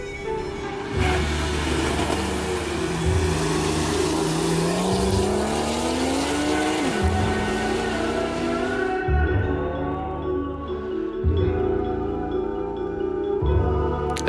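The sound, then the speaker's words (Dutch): The Porsche 911 of Frans Bonen pulls hard through several gears, its loud rasping engine note climbing in pitch, dropping at each shift, then climbing again, with no voices over it. “Het eh, mooie geluid van een 911, de 911 van Frans Bonen was dat.”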